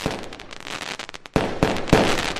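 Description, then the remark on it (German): A dense barrage of New Year's Eve fireworks: rockets and firecrackers shot into the air crackle and pop continuously, with several sharper, louder bangs standing out near the end, no voices. “Raketen, Böller und Feuerwerkskörper werden in die Luft geschossen.”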